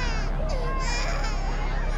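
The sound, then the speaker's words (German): A dense, continuous chorus of distressed voices: passengers shrieking over one another and children wailing in an aircraft cabin during descent toward Pucallpa, loud and chaotic for the whole stretch. “Die Passagiere kreischen, Kinder weinen.”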